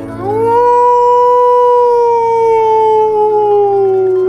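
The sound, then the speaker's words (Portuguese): A single long wolf howl rises quickly, then holds and slowly sinks in pitch over about four seconds, loud with no other sounds or voices. “quando do nada nós falando de filme de terror, um lobo mau uivou se perto de nós.”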